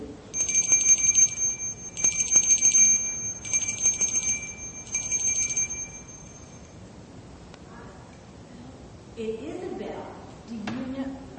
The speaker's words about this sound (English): It does make, it makes me happy too. I love to hear bells. Like, I love it when, when they play bells.